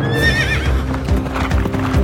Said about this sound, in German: Artus wendete schnell sein Pferd und galoppierte wie der Wind, um das fehlende Schwert zu suchen.